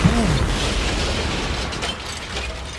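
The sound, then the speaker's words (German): A car explodes in a video game: a loud, rumbling explosion dominates, with a deep low-end boom and crackling debris that slowly fades, a brief rising tone sweeping under the blast near the start. “In einer explodiert, holy shit unfassbar enormen Mordsexplosion.”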